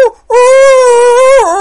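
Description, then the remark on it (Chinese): A voice imitates a big dog whimpering, or 'crying', in a yard: a brief clipped note, then a long, steady, loud whining tone that wavers and dips in pitch at the end, with no words. “晚上上床睡觉，就听那个大狗啊在院里呜呜”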